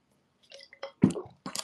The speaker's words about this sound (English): So uh, hang on a second. I just need a sip of water here.